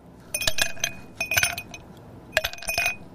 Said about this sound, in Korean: 잔에다가 지금 물 시원하게 먹으려고 얼음을 넣는 소리입니다. 얼음 떨어지는 소리예요. 잔에.